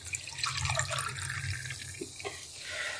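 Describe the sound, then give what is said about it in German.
Lemonade being poured to fill a glass: a steady, bright splashing stream with a low gurgle underneath, lasting about three seconds at moderate loudness, with no talking. “Ich mach das Glas voll.”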